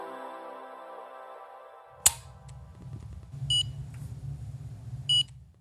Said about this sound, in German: Es ist der erste Dienstag im Monat und ich kenne das Geräusch glücklicherweise nicht aus meinem täglichen Leben, doch Diabeteserkrankte wissen, was es ist und kennen den kurzen Einstich und diesen Piepton nur zu gut.